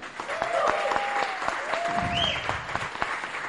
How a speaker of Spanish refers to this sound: También les pido un fuerte aplauso.